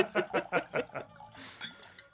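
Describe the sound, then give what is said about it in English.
Whisky glugs out of a bottle into a glass in five quick gurgling pulses, then trails off into a softer splashing trickle, fairly quiet. “I'll pour a little bit more.”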